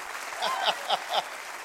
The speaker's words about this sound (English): Anybody want to clap to that?